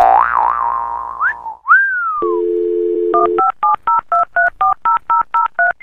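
morse code beeps

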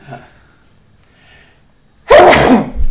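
sneeze

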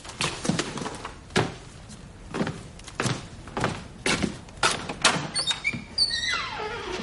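door being opened

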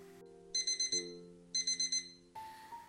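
school bell ringing

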